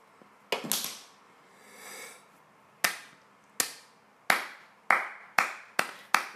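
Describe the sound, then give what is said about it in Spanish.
Sharp hand claps applauding someone for being vegetarian, a quick cluster at first, then a pause and steady spaced claps that speed up toward the end, each bright and crisp with a short ringing tail; no voices. “me aplauso por ser vegetariana, ¿ok?”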